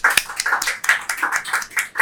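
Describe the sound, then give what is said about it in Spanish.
A single pair of hands claps repeatedly in a quick, fairly steady rhythm, about seven or eight sharp claps given as applause for a guest, with no voices. “No, estás equivocado. Esto es una palmada.”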